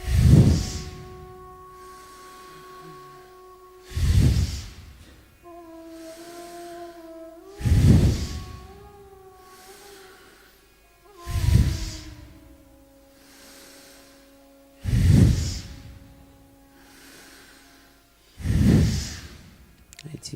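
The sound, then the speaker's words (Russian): Deep, forceful breaths of a hyperventilation breathing exercise repeat about every three to four seconds, six heavy whooshing exhalations in a steady rhythm, loud over a soft sustained musical drone, with no talking. “Произошла гипервентиляция, и нам не нужно дышать.”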